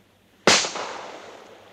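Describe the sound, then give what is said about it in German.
A single sharp gunshot, fired at a seagull, cracks out, followed by a long, fading echo that rings out over about a second with no voices. “Kein schlechter Schuss.”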